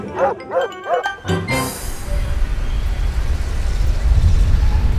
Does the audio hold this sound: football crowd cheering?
no